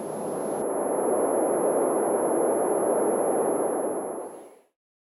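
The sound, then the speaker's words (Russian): A simulated tinnitus sound: a steady, thin high-pitched ringing over a broad, rushing hiss. It holds constant for about four seconds, then fades out quickly, with no voices. “and this is my tinnitus.”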